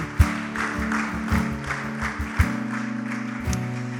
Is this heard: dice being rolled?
no